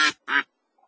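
Two loud, raspy duck quacks in quick succession, the second slightly longer, followed by a brief faint squeak and then silence.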